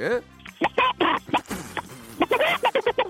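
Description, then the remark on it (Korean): A person imitates a chicken during a voice-mimicry contest segment on Park Myung-soo's radio show, with a string of short, choppy clucking bursts, fairly loud, the clucks coming quicker toward the end. “닭소리 갑니다.”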